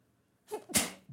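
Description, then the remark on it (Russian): A woman's single sharp sneeze with a quick breathy intake followed by an explosive burst, then a brief trailing sound at the end. “Я чихнула.”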